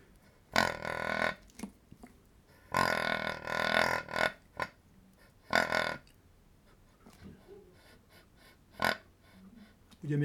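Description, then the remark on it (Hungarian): A wild boar's soft, low grunting imitated on a boar-call whistle by blowing into its end, a few throaty bursts of varying length with short pauses between, fairly loud, followed by quieter breathy puffs. “Ugye, hogyha befújjuk a végét ennek a sípnak, ezzel lehet intonálni magát a hangot, a hang mélységet is valamilyen szinten, illetve az intenzitását a hangnak, de ez a halk röfögő hang”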